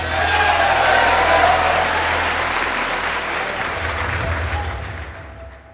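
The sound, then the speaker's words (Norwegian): A chamber full of people breaks into sustained applause after Matt Gaetz votes 'present' in the vote that denies Kevin McCarthy victory. It is a dense wash of clapping that stays loud throughout, with faint murmuring voices mixed in, before it thins slightly at the end. “Og når Matt Getz til slutt sier 'present', som er det samme som å stemme blankt, bryter salen ut i applaus.”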